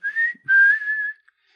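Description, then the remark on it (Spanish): A short whistled melody of two sustained phrases with gliding pitch, clear, followed by a faint final chirp; no talking. “Cuando estés en líos por tu bien o por tu mal, dame un silbidito.”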